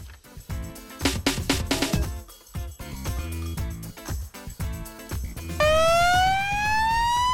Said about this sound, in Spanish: Bueno, esta es la ambulancia, es el último sonido que grabamos, es la salida de la ambulancia para atender a una emergencia.